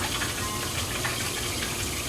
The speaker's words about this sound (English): I try to put a little bit of both, so I'll put just a splash of water there.